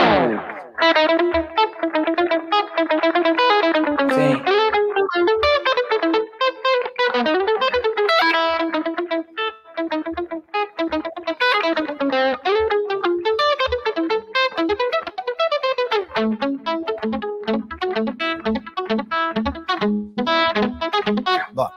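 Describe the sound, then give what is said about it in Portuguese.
An acoustic guitar plays a lively choro tune, with quick runs of plucked notes flowing steadily for the whole stretch; a voice briefly says a single word partway through. “Mas eu faço na guitarra acústica, na verdade, esse som.”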